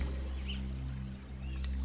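A steady, continuous wash of sea water with a deep low rumble underneath and a faint chirp or two above it, with no distinct breaking waves and no talking.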